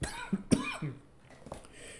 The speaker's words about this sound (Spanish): una pequeña tos que no, no, la, voy a editar.